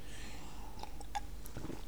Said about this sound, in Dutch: De situatie is, ik moest even een slokje water